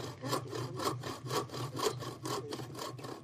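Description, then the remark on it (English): A piece of ash wood found in a woodpile, its bark stripped away, being worked by hand, giving a steady run of about seven rasping, sawing-like strokes, evenly paced and fairly loud, with no voices. “I found this uh, piece of ash in our woodpile.”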